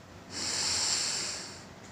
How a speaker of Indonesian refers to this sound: Coba deh, tarik napas dalam-dalam